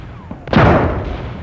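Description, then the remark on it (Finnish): A loud artillery shell bursts about 10 metres away with a sudden sharp crack, followed by a heavy rumbling roar that slowly fades. No voices are heard. “Uusi kraati iski 10 metrin päähän.”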